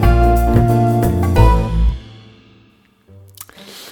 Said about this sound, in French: Et oui, et c'est parti pour le jingle.